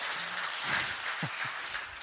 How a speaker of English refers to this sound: All right, give yourselves a round of applause.